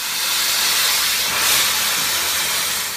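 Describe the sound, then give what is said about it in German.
An extremely thin high-pressure water jet of up to 3000 bar, from a water lance, cuts cleanly through the plastic and wood of a wind turbine rotor blade lying on the ground, with a loud, steady, roaring hiss that swells slightly midway and continues unbroken, with no voices. “Die Lösung sind Wasserstrahlen mit einem Druck von bis zu 3000 Bar.”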